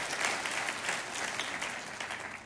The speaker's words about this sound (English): So if you, you, you yeah, clap for fatherhood, not me, clap for fatherhood, right?